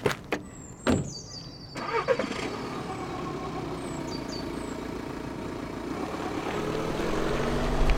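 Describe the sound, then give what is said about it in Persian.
A few sharp clicks and thumps as a mother is helped into a two-year-old car, then its engine cranks and catches, settling into a steady rumble that grows louder as the car pulls away; no talking. “تو سوار شدن ماشین به مادرم کمک کردم”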